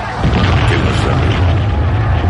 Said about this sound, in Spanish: Finalmente, una gran explosión